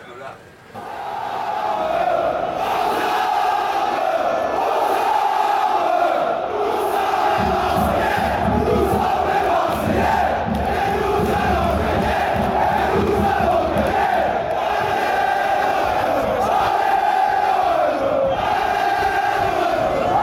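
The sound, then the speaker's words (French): A large stadium crowd of football supporters chants in unison, a loud, sustained roar of many voices with a rhythmic pulse that builds after a quiet opening second and holds steady throughout. “je propose juste qu'on écoute euh, un extrait de Aux Armes”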